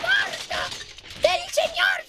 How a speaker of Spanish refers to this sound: ¿Por qué tira vidrio?